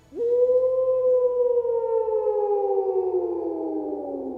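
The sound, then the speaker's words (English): A single long, loud howl echoes across a plain on a moonlit night, swelling in quickly, then holding and slowly sinking in pitch over several seconds, one continuous mournful tone with no voices or other sounds around it. “A howl echoed through the plain.”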